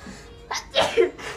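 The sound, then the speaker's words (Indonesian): A single sneeze with a sharp inhaled build-up and a bright, breathy burst, followed by a faint exhale amid quiet background noise. “bless you”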